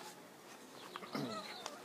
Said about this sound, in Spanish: Es mi gatita que siempre llega acá.